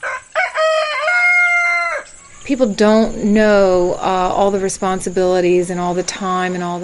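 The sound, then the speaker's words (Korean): A rooster crows loudly on a sanctuary farm for given-up domestic livestock: a long drawn-out call followed by more strained, wavering crowing that carries on almost without pause, with faint farmyard background noise. “보호농장엔 돼지며 닭, 염소, 소, 심지어 양도 있습니다.”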